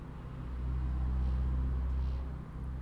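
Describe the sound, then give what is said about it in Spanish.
A steady, muffled low rumble of street traffic heard indoors about 2 metres from a large window facing an avenue, measuring about 50 decibels while traffic runs on the other street, at 9:10 on a Monday morning; it swells slightly in the middle and holds constant with no voices. “Y desde acá registramos unos 50 decibeles cuando el tránsito no pasa por la la avenida a la que da el ventanal, sino por la otra.”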